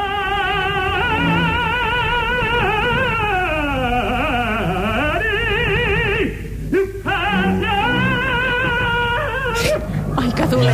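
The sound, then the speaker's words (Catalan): An operatic tenor at the Gran Teatre del Liceu, years ago, sings a loud, sustained line with heavy vibrato, swooping down and back up, then his voice abruptly breaks and falters on a high note before he carries on. “Ara escoltarem l'accident que va tenir un tenor al Gran Teatre del Liceu.”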